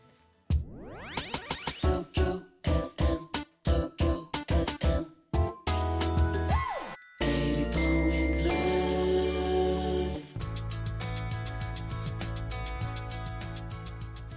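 A cover song intro arranged by a pianist and composer, with warm cello and piano opening on a rising sweep and a run of short, punchy chords, then swelling into a fuller, sustained arrangement. It is played clearly and alone, with no talking.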